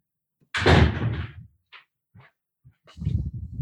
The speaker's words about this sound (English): And I'm gonna I gotta close the door real quick. Keep this cat in here.